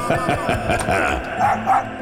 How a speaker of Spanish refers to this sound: la mascota celebró su llegada moviendo la cola y con pequeños ladridos